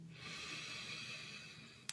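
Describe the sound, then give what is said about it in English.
A long, steady inhale drawn in through the nose and mouth during a guided relaxation breathing exercise, airy and hissing, with a faint click right at the end and no talking. “One inhale together, breathing in.”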